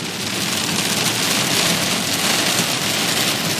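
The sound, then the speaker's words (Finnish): Heavy rain pours down steadily in a dense, continuous hiss and drumming, loud as it pounds on a car being driven at about 20 near an airport, with no voices. “Ei jumalaissa nyt, mutta alkaa sataa oikeasti paljon.”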